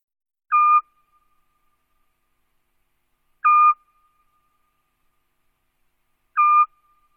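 A Eurasian scops owl gives three short, mellow whistled hoots at a steady pace, roughly three seconds apart, each note clear against an otherwise silent night.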